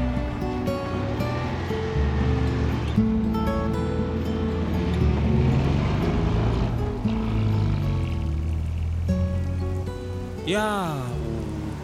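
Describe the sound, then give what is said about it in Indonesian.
Heavy rain pours down as a steady, dense hiss that fills the whole recording, with droning tones layered over it and a brief swooping whine near the end. “Mana hujan gini pasti macet.”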